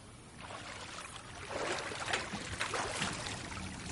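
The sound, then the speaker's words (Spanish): Water sloshes and splashes steadily as a man swims in a pool and a woman dives under the water, with soft churning strokes growing a little louder toward the end. No voices. “Bucea y busca a Antoine con la mirada bajo el agua, aunque él sigue nadando.”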